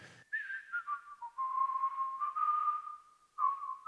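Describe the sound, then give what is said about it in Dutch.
A man whistles a cheerful little tune alone, clear, the melody sliding down from a few quick notes into long held tones before a brief final flourish. “Maar ik heb dus zitten fluiten.”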